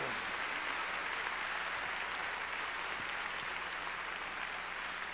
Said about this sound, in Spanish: Todos los que lo reciben, démosle una ofrenda de palmas al Señor.